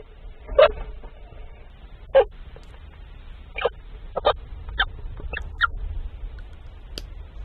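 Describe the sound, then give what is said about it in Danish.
Two stoats chirping in their nest, with soft, high squeaks scattered irregularly, about a dozen faint calls over a quiet low rumble, with no talking. “et kamera nede i en rede af to lækatte”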